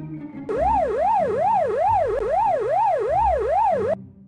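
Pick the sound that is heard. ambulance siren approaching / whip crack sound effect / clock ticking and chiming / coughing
ambulance siren approaching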